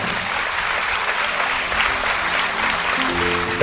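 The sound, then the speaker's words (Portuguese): An audience applauding the Lord steadily, a dense, continuous wash of clapping hands that holds at an even, fairly loud level throughout, with a faint tonal hum underneath toward the end. “Vamos aplaudir o Senhor e vamos embora para cá.”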